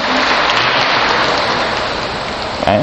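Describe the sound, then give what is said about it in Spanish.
An audience applauds loudly, a dense, steady wash of clapping that holds for about three seconds without letting up, with no one speaking over it. “Fuerte el aplauso a nuestro hermano que estos son los que están ahí.”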